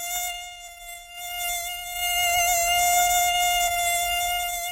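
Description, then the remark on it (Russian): A mosquito's high, thin whine, made by its wings beating 600 to 1000 times per second in flight, drones steadily for several seconds, its pitch wavering slightly as it seems to approach and grow a little louder, with no voices present. “Характерный комариный писк ни с чем не спутать, и именно так мы понимаем, насекомое приближается или отдаляется.”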